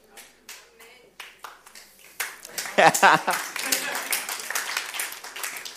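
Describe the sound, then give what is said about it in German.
An audience claps, starting with a few scattered, sharp hand claps that quickly swell into louder, denser applause, which carries on steadily to the end. “Wenn du immer schon geklatscht hast, nein, Spaß.”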